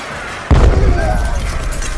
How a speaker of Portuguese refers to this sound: Explodindo e lançando três deles.